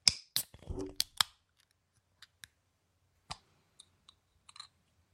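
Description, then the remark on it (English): Beer cans cracked open together on a count of three: a cluster of sharp metallic pops and a short fizzy hiss, followed by a handful of faint, scattered clicks and taps. No one speaks. “And I think we should crack these things open and, and get to drinking.”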